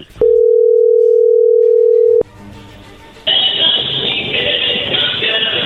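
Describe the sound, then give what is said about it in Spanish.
A steady, loud telephone dial tone hums on one mid pitch for about two seconds, then cuts off abruptly, giving way to faint line noise and then a louder, sustained hiss, as a phone call is being placed. “bueno, pues vamos a llamarle y vamos a ver si te manda los chocolates”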